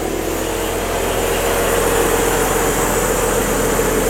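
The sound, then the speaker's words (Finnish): A small motorized milk taxi, a moped-like farm vehicle with a throttle carrying a small milk tank, runs steadily, a constant idling drone with a faint high whine over it, loud and unbroken for the whole stretch with no talking. “Se näyttää sellaiseen, että siinä on pieni maitotankki, millä mennään sitten.”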